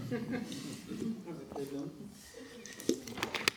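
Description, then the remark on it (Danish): Someone drinks lukewarm water from a plastic bottle, with soft sips and gulps, then several sharp crinkles of the bottle near the end, over a low background murmur of voice. “Altså, jeg, skal, jeg drikker altså noget vand nu, når jeg har med den i.”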